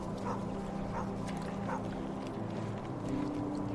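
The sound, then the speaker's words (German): A sheepdog running alongside a herd of sheep that a shepherd drives through a valley gives three short barks at a steady pace over a continuous low rumbling drone, with no voices. “Und siehst du den Schäferhund nebenher laufen?”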